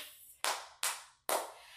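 Three sharp hand claps, evenly spaced about every 0.4 seconds, each a bright, loud snap that fades quickly, with no voices in between.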